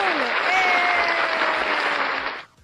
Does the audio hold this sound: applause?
yes